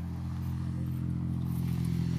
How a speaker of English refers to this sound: Prodrive car, and he's just come back from one of his test drives. He's going to try and run us over. What a beast of a thing!